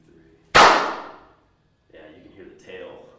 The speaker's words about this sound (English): Um, and it's really, you know, it's the it's the materials in here more so than the size that make it echoey like this. But we can clap. You want to clap with me? Okay.